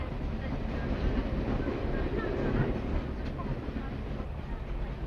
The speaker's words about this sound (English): The uh, train journey is coming near an end now with uh, the slowing down as we approach uh, Maynooth, past the wall of St. Patrick's College and uh, around the corner with the canal uh, into Maynooth Harbour.